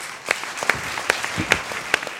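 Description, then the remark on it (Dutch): Audience applause welcoming guest Jeroen Smit, a steady wash of many hands clapping with a few sharper, louder claps standing out at irregular moments, sustained at moderate volume for a couple of seconds. “Voor de laatste, de laatste is, mensen, mag ik een hartelijk applaus voor de enige echte Jeroen Smit.”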